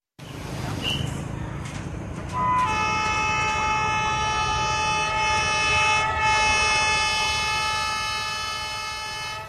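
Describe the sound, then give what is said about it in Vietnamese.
A passenger train heading to Gia Lam station rumbles along steadily while its horn sounds a long, loud, sustained blast with rich harmonic tones, starting a couple of seconds in and holding nearly to the end. “Ngay khi tàu dừng tại ga Gia Lâm, hành khách đi bộ di chuyển đến nhà máy xe lửa Gia Lâm”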